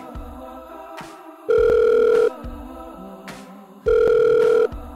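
A telephone rings twice, each ring a steady, loud electronic tone lasting under a second with a pause between, over a quiet, sustained background hum of music.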